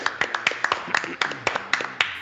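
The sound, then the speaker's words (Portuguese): Steady, rhythmic hand clapping, roughly ten sharp claps in quick succession from what sounds like a small group applauding Paulo Luz, with voices murmuring underneath. “Eu quero nesse momento uma salva de palmas para Paulo Luz.”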